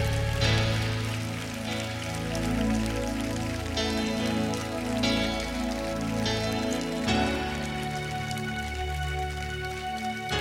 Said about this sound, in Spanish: Dale, dale ese fuerte, fuerte aplauso a Jesús.